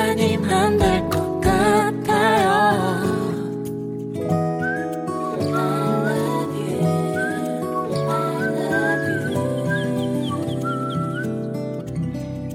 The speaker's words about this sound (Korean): 네, 어, 방금 로고 또 라이브로 또 제가 휘파람 소리까지 또 어, 여러분들 어, 괜찮았죠? 네, 이렇게 또 전해드렸습니다. 네, 거짓말이에요.